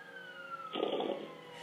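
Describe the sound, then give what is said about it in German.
A video game truck engine drones with a slowly falling whine, then surges into a brief, rougher roar for about half a second before easing back. No one speaks. “Ich komme jetzt mit meinem geilen Truck.”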